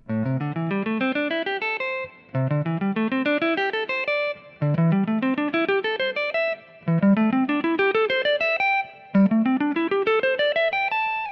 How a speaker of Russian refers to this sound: Вот, например, как музыкант по пентатонике обыгрывает гаммы на гитаре.